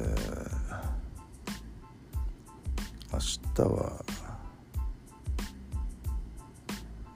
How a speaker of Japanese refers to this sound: 明日は灯油買う買うですねこのガーッといってる音出してる灯油ファンヒーター石油ファンヒーターですかえー、大活躍ですよもう本当に。